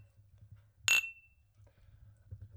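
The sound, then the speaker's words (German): Two glasses of red wine, a Miro Edition Rioja, clink together once in a toast, a bright, sharp tap followed by a brief high ringing tone that fades over a low, quiet background hum. “also wenn ihr das gerade hört, dann haben wir das schon, haben wir den Rotwein schon lange verdaut, den wir jetzt trinken. Cheers. Cheers.”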